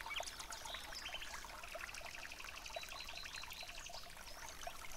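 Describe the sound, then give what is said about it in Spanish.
A steady stream of bubbling, gurgling water as a bathyscaphe begins its dive, busy with small trickling pops and splashes at a moderate, even level, with no voices. “Bien, comenzamos la inmersión.”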